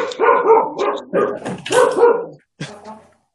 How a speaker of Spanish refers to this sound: Bueno, ya se enojó el perro de ellos.